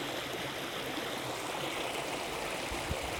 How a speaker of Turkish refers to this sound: Akıntısının tam dibindeyim. Elimi uzatsam suya değecek.